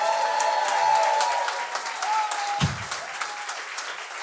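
A crowd applauds steadily with dense clapping and some whoops and cheers, loud and close, the noise filling the whole stretch without letting up.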